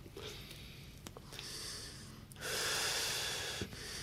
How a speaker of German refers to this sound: Du rauchst noch, höre ich.